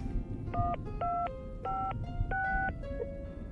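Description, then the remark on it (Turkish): A phone number is dialed: a quick series of about six or seven short two-tone beeps in an irregular rhythm, clearly audible over a steady low rumbling background, with no one talking. “Dur şunu bir arayayım ben.”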